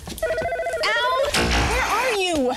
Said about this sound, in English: Phone!